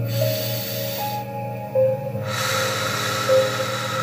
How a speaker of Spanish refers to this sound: Entonces vamos a tomar respiraciones profundas. Por la nariz lo soltamos. una vez más una respiración.